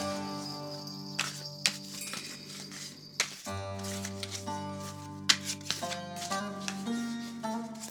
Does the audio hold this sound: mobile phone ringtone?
no